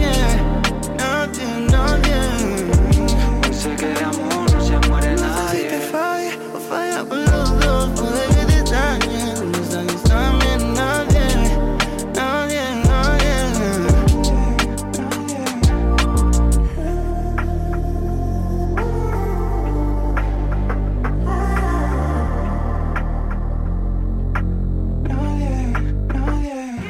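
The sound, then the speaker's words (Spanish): A song by a Venezuelan artist plays loud throughout, with a steady thumping beat, heavy bass and sustained melodic lines; the arrangement thins and shifts about two-thirds of the way through. “Escuchabais la canción … del artista venezolano …, producida por …”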